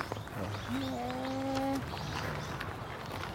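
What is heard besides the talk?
birds calling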